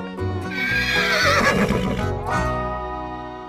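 A horse lets out a loud whinny, its shrill, wavering cry rising and trembling for a couple of seconds before tapering off, heard on its own without any talking.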